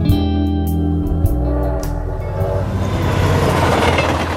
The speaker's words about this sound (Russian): Вместе со мной вздрогнули и забились вагоны. Они, оказывается, уже давно бились и дрожали.